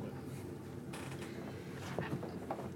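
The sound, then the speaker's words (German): A captain's chair creaks and groans as someone settles into it, a few short, strained creaks with faint mechanical clicks over a low steady background hum. “Und damit setze ich mich dann auch ganz gemütlich in meinen Captain's Chair.”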